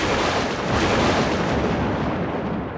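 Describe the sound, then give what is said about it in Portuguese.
A loud crash of thunder rolls out as one sustained, booming rumble that holds steady for a few seconds before easing slightly, with no voices present; the great thunder heard in the myth when a drop of Medusa's blood touched water after Perseus defeated her. “quando o herói Perseu derrotou Medusa, uma gota de seu sangue entrou em contato com a água e ouviu-se um grande trovão.”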